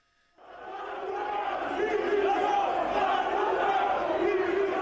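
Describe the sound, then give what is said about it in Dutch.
A large crowd of Barcelona football supporters shouting in protest when Messi announced his departure, a dense, continuous roar of many voices that swells in after a brief silence and stays loud and sustained throughout. “Maar om de sfeer bij Barcelona even een beetje te schetsen, kunnen we nog even laten horen hoe dat protest ging toen Messi zijn vertrek aankondigde.”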